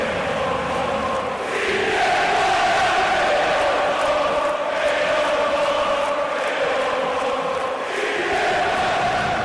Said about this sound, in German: Der rituelle Gesang im Stadion ist Stiftung von Gemeinschaft, Vergewisserung gemeinsamer Emotionen und Orientierung, wer Freund ist und wer Feind. Und im Staccato des A Cappella wird die Welt eingeteilt in Gut und Böse